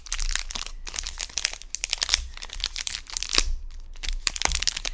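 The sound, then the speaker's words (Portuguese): A snack bar wrapper crinkles and crackles loudly as it is torn open, a dense run of sharp plastic rustles lasting several seconds with no one talking. “Eu tenho aqui uma barrinha nas mãos porque aproveitei e já que vamos fazer isto passo a passo, desculpem o meu barulho, mas eu vou só abrir isto.”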